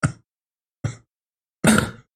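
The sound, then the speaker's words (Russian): Three coughs with brief pauses between them: two short, sharp ones, then a longer, rougher cough that trails off. No one speaks. “Тренд такой, ты типа под какую-то мелодию еще очень хуевый, ты типа кашляешь.”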